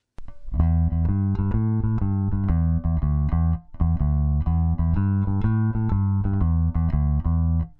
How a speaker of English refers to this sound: So, as you can see, that was a 34 inch scale bass so it was nice and gritty and meaty and had a nice resonance to it.